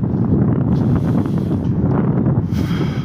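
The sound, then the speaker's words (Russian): Loud, continuous wind buffeting a microphone on a very windy, cold, frosty day, a low roaring rumble with gusty surges that fills the whole clip, with no voices heard. “извиняюсь еще раз, у нас очень ветрено, холодно, морозно.”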